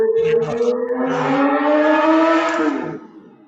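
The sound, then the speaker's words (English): A motorcycle engine drones past, its buzzing tone climbing slightly in pitch as it grows louder, then fading away as the bike moves off. No one talks. “we have a motorcycle, it sounds like.”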